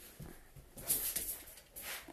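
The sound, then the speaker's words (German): A dog holding a shoe in its mouth whimpers softly, a few short, high, thin whines in quick succession against a quiet background, with no talking. “Irgendwann habe ich wieder meine eigene Wohnung und dann werde ich nicht mehr abgelenkt von Hunden und Fernsehern”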